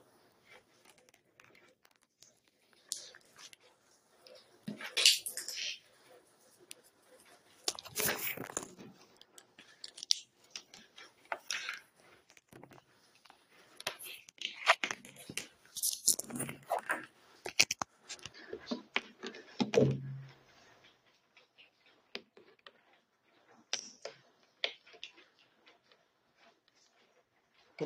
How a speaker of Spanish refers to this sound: A ver, se me hace que me van a disculpar tantito, voy a conectar el adaptador. Vamos a poner este aquí.